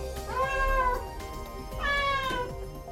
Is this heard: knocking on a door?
no